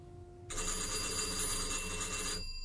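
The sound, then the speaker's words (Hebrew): A telephone bell rings loudly in a single continuous burst of about two seconds, a bright metallic trill that starts and stops abruptly, with no voices around it. “היה טלפון ולא...”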